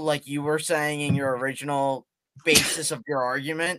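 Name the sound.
sneeze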